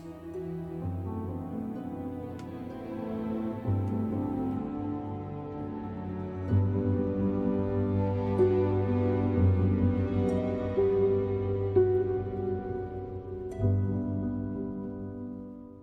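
A slow, brooding orchestral score plays on its own, with sustained low string-like tones and layered harmonies that swell gently in a few places, steady and moderately loud with no voices.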